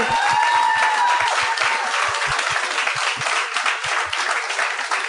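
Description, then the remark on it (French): A live audience breaks into sustained, dense applause for guests Mélanie Couture and Eddie King, many hands clapping at once with a few brief cheers or whistles riding on top, steady and fairly loud throughout. “J'aimerais ça qu'on leur donne bonne main d'applaudissements.”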